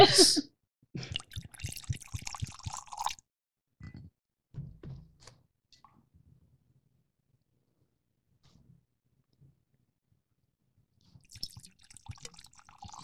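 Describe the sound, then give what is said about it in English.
Scotch whisky pours into a glass in a burst of gurgling splashes, followed by a few soft drips and clinks, then a brief quieter splash near the end; fairly clear. “I mean, it even just sounds great pouring.”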